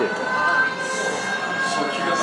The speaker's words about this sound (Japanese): ちょっとサイレンが鳴ってるかもしれないですけど気のせいですよ